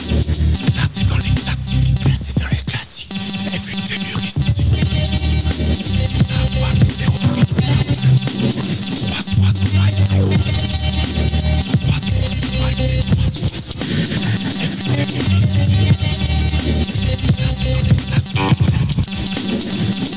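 A loud hip-hop track with a heavy, steady bass groove and dense beat, cut through by repeated sharp turntable scratches that run across the whole twenty seconds.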